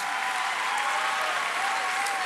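Steady, dense applause from a large audience, a continuous bright wash of many hands clapping at an even loudness throughout, with no voices standing out.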